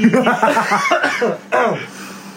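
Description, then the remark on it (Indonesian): Someone coughs repeatedly, a rough, throaty run of coughs followed by a brief pause and another harsh burst, fairly loud and with no other sounds around it. “Aduh gue batuk-batuk apa masukin ya.”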